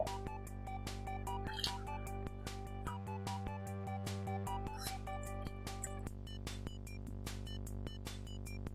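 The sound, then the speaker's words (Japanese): Wet, squishy slurping of crab miso from a crab shell, made up of repeated short sucking and dripping sounds at an irregular pace, heard over a steady humming background. “カ ニ味噌をすする音が入っとると思うけど。”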